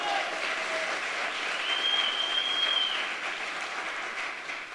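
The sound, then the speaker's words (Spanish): A church audience breaks into sustained applause for Jesus, the King of Glory, a dense, steady wash of many hands clapping at an even loudness for several seconds, with a faint high whistle-like tone briefly riding above it. “Si alguien celebra eso, denle el aplauso al Rey de Gloria.”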